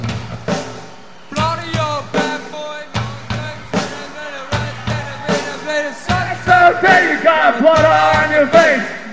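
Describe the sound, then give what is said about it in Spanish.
A large live concert crowd stomps and claps in a steady repeating beat while many voices sing along together, the chanting swelling louder toward the end. “y que el concierto se convierta en algo como lo que estamos escuchando ahora mismo.”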